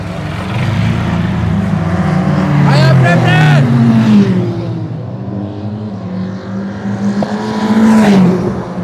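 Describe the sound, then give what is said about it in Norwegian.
Cars roar past at high speed in a race, their engine whine rising and falling as each one passes, loud, with the rush of several vehicles overlapping over a steady rumble. “Bilene passerer i en utrolig hastighet, og Preple forsøker å kappkjøre med Per og de andre gutta som er kjørt før, men han eh, klarer ikke å ta dem igjen.”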